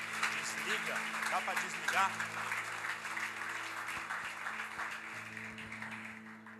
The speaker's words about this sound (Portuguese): Se você crê e concorda, aplauda o Senhor bem forte.